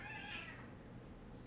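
Pet cats fighting at home: a cat lets out a loud, drawn-out yowl in the first half second, its pitch wavering before it trails off into low, rumbling background noise, with no one speaking.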